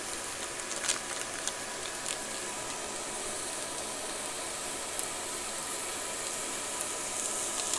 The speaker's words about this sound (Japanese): 中華鍋の中にこれを投入して混ぜちゃう加熱しながら混ぜます今ひとしきりもやしは炒めたけどねくたくたになりましたそれをさらにこのね味付けのやつを混ぜて炒める